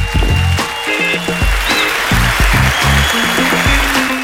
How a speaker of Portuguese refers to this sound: Na, no próximo podcast teremos estreia no Opina Galo. Palmas, por favor